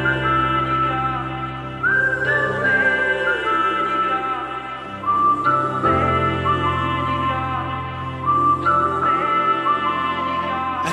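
A pop song plays loud and steady, with a full band backing and a bright melodic lead line gliding over it, no talking.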